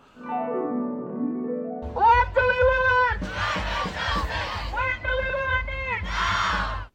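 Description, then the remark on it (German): Activists at a Fridays for Future demonstration chant loudly in rhythmic, repeated bursts after a short opening of a single wavering, sweeping tone, shouting a slogan together. “Du, ich bin letztens bei einer Fridays for Future Demo vorbeigekommen und habe gehört, wie die AktivistInnen gerufen haben”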